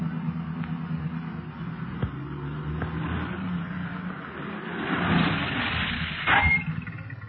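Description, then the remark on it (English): Police car engines rumble steadily, swelling into a louder rush of motor noise near the end as the police cars pull up at a hill and come to a stop, with no voices. “The other machines are stopping too, Clint.”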